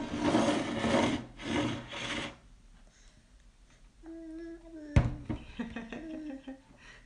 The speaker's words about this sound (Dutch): is met zijn bord aan het spelen.